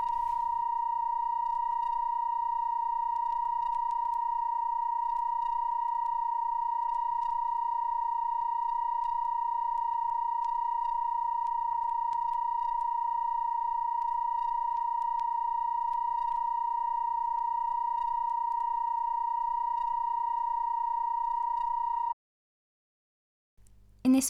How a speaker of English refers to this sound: Their Dreamhouse installation, located at 275 Church Street in New York, has been running continuously for 17 years. The sound consists of 32 sine waves, tuned to different frequencies according to just intonation.